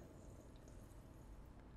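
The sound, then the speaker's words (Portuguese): The last small amount of liquid trickles out of a glass holding lemon and ice in a quiet, steady pour lasting a moment or two, with a couple of faint drips and no voices. “O liquidinho pra jogar só o limão e o gelo fora.”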